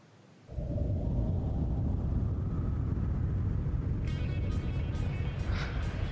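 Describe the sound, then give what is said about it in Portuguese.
A loud, steady roar of wind kicks in abruptly as a sudden storm darkens the daylight, and keeps blowing hard, with sharp crackling bursts of thunder and lightning breaking through near the end. “a gente começa a ouvir, junto com a ventania, os raios estourando.”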